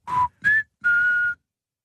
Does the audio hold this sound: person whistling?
yes